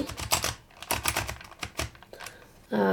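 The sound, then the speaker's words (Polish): A Braille label maker's drum, used to set the letter or character to be written on the tape, turning with a run of quick mechanical clicks and ratchety ticks, fairly loud, ending with a brief harsher burst. “Ten bęben się kręci”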